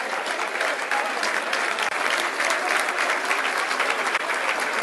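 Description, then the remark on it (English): A large football stadium crowd applauds Elliott coming into the game as a substitute at about 58 minutes, in a dense, steady wash of clapping that holds at an even, loud level throughout the nearly five seconds, with no clear voices standing out. “Elliott's coming into the game for applause.”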